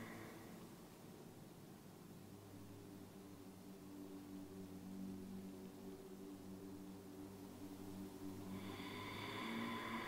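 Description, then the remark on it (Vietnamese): A long, steady Ujjayi breath exhaled through a constricted throat, with the root of the tongue curved toward the throat, producing a soft, ocean-like hiss that continues evenly for several seconds with no talking. “Nhưng khi thở ra, bạn hãy hơi cong gốc lưỡi chạm gốc lưỡi về phía cuống họng để tạo âm thanh.”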